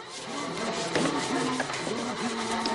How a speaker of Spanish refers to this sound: Rabí sigue lijando la pared.